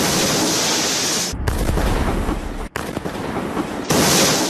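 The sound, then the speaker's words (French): Heavy explosive booms from a meteorite disintegrating over a city in Russia's Ural region at 9 a.m.: two deep blasts followed by rolling rumble and a loud, noisy roar, with no voices. “Plusieurs explosions. Une météorite vient de se désintégrer au-dessus de la ville.”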